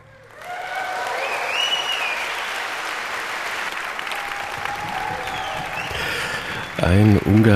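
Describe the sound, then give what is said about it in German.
A large audience bursts into dense, sustained applause after the Landesjugendorchester Sachsen, a youth orchestra, plays a Johannes Brahms dance. The applause rolls on steadily for several seconds with faint whoops on top; near the end a man starts talking over the fading clapping. “Und wir hören es, die Begeisterung der jungen Musiker, die springt aufs Publikum über.”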